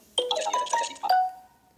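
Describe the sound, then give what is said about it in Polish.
A phone's SMS notification tone as a text message arrives: a quick run of bright electronic chime notes ending on a longer ringing note that fades out, clear with no voices. “I SMS, jak słychać, mi doszedł.”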